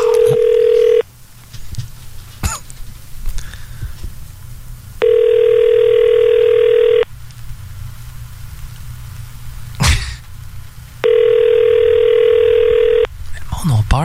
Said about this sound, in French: à cette heure du téléphone. Quand ça sonne, hein, c'est ça. Ça sonne.